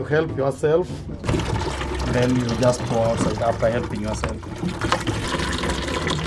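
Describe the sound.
Water runs steadily from a tap into a canister at a squat toilet block where toilets are flushed by hand, a continuous rushing fill that starts about a second in and carries on to the end, with voices talking over it.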